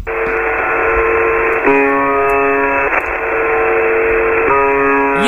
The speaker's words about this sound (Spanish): que estamos escuchando es la transmisión del 25 de julio de 2016 de la vb 76 una emisora de onda corta que empezó sus transmisiones en la Unión Soviética entre los últimos años de la década del 70 y los primeros de los 80.